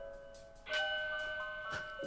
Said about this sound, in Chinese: 啊，我的我的火警突然响了， 火警响了！天哪！